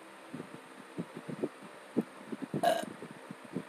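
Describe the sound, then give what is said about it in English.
A short, throaty burp erupts near the end, fairly loud, over a steady pattern of soft, low rhythmic thumps in the background. “That was a burp. That was not supposed to happen.”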